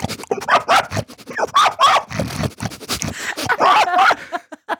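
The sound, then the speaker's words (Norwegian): A person imitates a pig: a loud run of rough snorting grunts and squealy snuffles, coming in quick uneven bursts for several seconds with no speech. “Hvordan i alle dager har du funnet ut at du har den griselyden i deg?”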